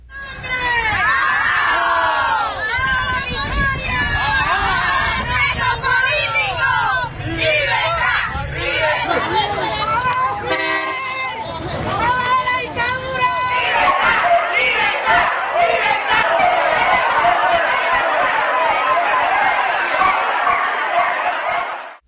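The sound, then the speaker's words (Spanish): A large crowd of Cuban protesters shouting and chanting together, a dense, loud roar of many overlapping voices that stays steady throughout, with a few sharper cries rising above the mass. “Póngame el video donde se ven los cubanos cuando empiezan a protestar, cuando gritan y qué actitud tiene la dictadura.”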